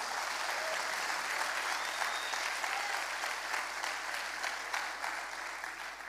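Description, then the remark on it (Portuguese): An audience applauds steadily as a round of applause to God, a dense wash of many hands clapping that holds at an even level throughout, with no voices standing out above it. “Dá uma salva de palmas ao nosso Deus.”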